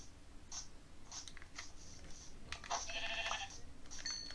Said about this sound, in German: So, ein Schaf.